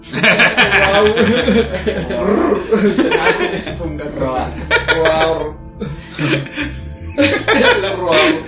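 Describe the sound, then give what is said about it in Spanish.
Several voices let out raspy, drawn-out growls and roars imitating dinosaurs, loud, overlapping in bursts with chuckling and laughter mixed in, recorded around one in the morning. “Bueno, nuestro intento por hacer sonidos de dinosaurio, güey.”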